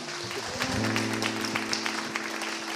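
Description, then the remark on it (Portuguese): A steady burst of clapping from a group fills the short stretch, dense and crackly throughout, with a faint low hum running underneath. “Aplausos, olha.”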